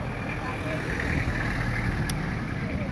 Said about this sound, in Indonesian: Oh, bentar ada mobil lagi nih lewat.